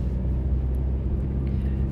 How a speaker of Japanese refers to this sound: えー、そんな私、今車に、えー、LG の、えー、テレビを載せて、吉祥寺に向かっております。